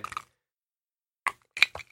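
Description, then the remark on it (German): Ice cubes clink in a glass in a few short, bright bursts: a quick cluster, a long pause, then several more sharp knocks. No one speaks. “Hier sind schon Eiswürfel eingeschenkt, man hört es auch schon kleppern.”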